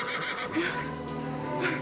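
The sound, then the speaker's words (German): A horse neighs loudly as two riders gallop off on horses, a long, shrill whinny that wavers and rises again near the end, filling the whole moment with no voices present. “Die beiden Reiter auf den Pferden schossen aus der Traube.”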